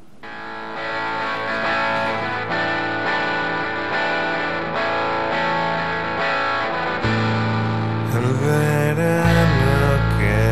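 A loud rock song with heavily distorted, effects-laden guitars plays without any talking, holding a steady, dense wall of sound before a heavier, booming bass section kicks in toward the end.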